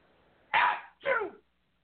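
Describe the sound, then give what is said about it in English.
A loud sneeze in two quick bursts, a sharp breathy blast followed by a second rasping burst, then silence. No talking. “Bless you.”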